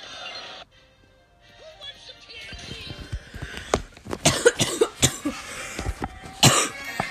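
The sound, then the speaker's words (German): A person coughs repeatedly and forcefully, a run of sharp, uneven bursts after a quiet start, with a throaty rasp between some of the coughs. “So, ich habe gerade bemerkt, dass ich lange nicht mehr gehustet habe. Deswegen habe ich es jetzt einfach mal gemacht.”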